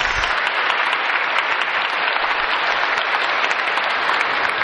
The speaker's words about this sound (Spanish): Dale fuerte el aplauso a todos los santos, los ángeles.